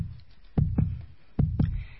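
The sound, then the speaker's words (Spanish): A healthy heartbeat in steady sinus rhythm with no murmur, about 60 to 65 beats per minute: two clear lub-dub beats, each a deep double thump, with a soft low rumble between them and no talking. “Es un, es un corazón sano. ¿Sí? En ritmo sinusal. Sin soplo.”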